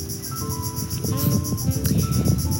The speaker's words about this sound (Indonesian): hari ini tanggal 19 Oktober jam 10 pagi aku lagi ada di pinggir pantai makanya kamu kalau misalnya dengerin suara serangga dengerin suara anak kecil iya ada anak kecil lagi berenang sama keluarganya ada suara ombak juga